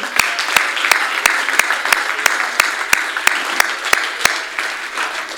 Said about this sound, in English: Oh, would you clap your hands one more time?